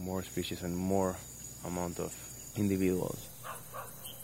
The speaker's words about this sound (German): Ja, man hört die Rufe von ein paar Amphibien, aber das ist kein Vergleich zu früher. Vor zehn Jahren waren es definitiv mehr Frösche von mehr Arten.